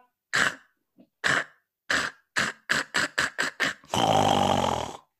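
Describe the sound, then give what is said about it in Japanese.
A voice imitates the overly forceful breath of the character Otokonosuke, whose line "kiete nakunare" (disappear) turns into harsh 'kah' sounds: a string of about nine throaty 'kah' bursts that come faster and faster, ending in one long, loud, raspy rush of breath. “そいつとか、はいはい、消えてなくなれっていうセリフがあるんだけど、うん、そことかもう消えてなーって言った後に、あの、息が強すぎて、あの、セリフが一回なんかね、こう、カッって音になるんだよ。”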